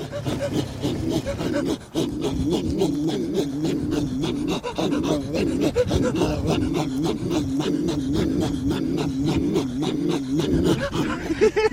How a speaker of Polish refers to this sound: I e, w podróży na kraniec świata możemy obserwować dryfujące lodowce, a także no chyba jedną z najciekawszych scen, kiedy Connolly słucha charakterystycznego gardłowego śpiewu Eskimosów. Słuchajcie, brzmi to niesamowicie.